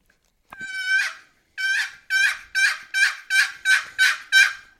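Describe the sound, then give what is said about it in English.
A turkey call sounds a sequence of about eight loud yelps in a steady rhythm, each note breaking sharply from a high pitch to a lower one. The first note is drawn out longer. “You can hear it high, low. High, low, yeah, yeah. It drops off, but uh, and that and that's what a beginner needs to practice.”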